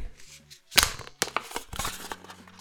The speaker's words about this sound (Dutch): Dus ik ga het blikje kraken.